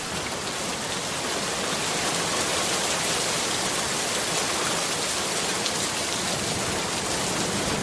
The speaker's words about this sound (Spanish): y de repente, cuando giré la cabeza, me di cuenta que fuera estaba lloviendo.